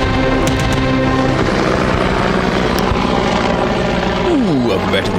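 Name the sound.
helicopter rotor sound effect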